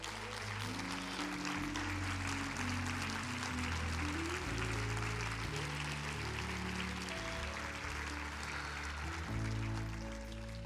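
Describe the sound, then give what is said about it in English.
A large crowd, standing on its feet all over the building, claps steadily and loudly for the word of the Lord for the full stretch, a dense wash of hands while sustained music plays underneath. “Stand to your feet, clap your hands all over the building right now.”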